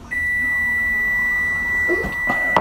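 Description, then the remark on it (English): A microwave oven gives one long, steady high-pitched beep that holds for a couple of seconds, fairly loud, with a few soft kitchen clatters near the end. “Don't you yell at me, microwave.”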